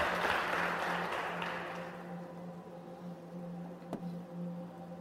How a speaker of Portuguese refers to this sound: Parabéns aos pais. Vamos aplaudir os pais também pela educação boa? Aí, ó.